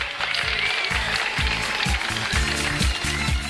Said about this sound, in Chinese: 谢谢爱我的你们的掌声啊！